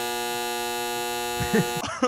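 A single long, harsh electric buzz from a handheld buzzer, steady and rich in overtones, holds for nearly two seconds before cutting off as voices and laughter break in.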